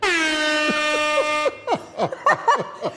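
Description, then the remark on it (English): A loud, sustained air horn blast rings out for about a second and a half, then cuts off into bursts of laughter. “For whoever I just scared with the air horn, I'm very sorry.”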